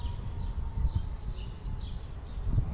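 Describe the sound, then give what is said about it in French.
Swallows twitter in quick, high chirps scattered through the air at dusk in Cádiz, Spain, fairly faint, over a steady low rumble of wind blowing through the narrow streets. “Le jour tombe et les hirondelles sifflent et s'agitent.”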